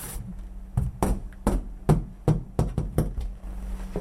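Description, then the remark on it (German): A series of about nine sharp knocks on an interior wall panel of steel sheet with its original diamond pattern, fairly loud, with a slightly ringing, hollow tone, coming in an uneven rhythm with no talking. “Die Innenwände mit Originalrautenmuster aus Stahlblech, wie man hört.”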